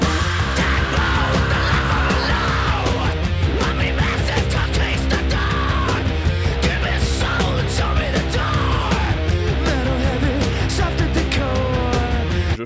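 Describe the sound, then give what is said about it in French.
Loud, dense rock music with a raw, screamed male vocal riding over heavy distorted guitars and pounding drums, continuous throughout. “il chante comme on attend que … chante. Il crie.”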